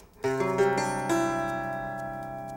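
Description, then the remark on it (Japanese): A rich C chord, dressed up in visual kei style with extra added notes, rings out on a keyboard-like instrument, its notes entering in quick succession before sustaining and slowly fading, with no voices present. “これをビジュアル風にドレスアップさせます。”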